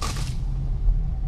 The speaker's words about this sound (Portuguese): Isto é o som das folhas a baterem no carro porque o carro quase mal tem espaço para passar.